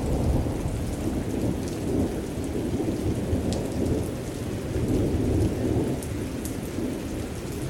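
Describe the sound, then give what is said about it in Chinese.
A relaxing white-noise recording of a thunderstorm, of the kind posted by the YouTube channel Relaxing White Noise: heavy rain pours in a steady, dense hiss over a deep, continuous rolling rumble of thunder, with scattered sharp droplet ticks on top and no voices. “比如一个 YouTube 的频道叫做 Relaxing White Noise，它其实更新了大量的长达十小时的白噪音，比如能让你放松的暴风雨的声音，”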